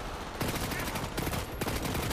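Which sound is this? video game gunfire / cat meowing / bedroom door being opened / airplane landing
video game gunfire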